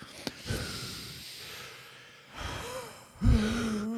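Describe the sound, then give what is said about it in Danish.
A deliberate breathing exercise done in an odd rhythm: long noisy inhales and exhales, a quick sharp gasp, then a loud breath that turns into a low voiced hum. “trækker vejret på en mærkelig måde.”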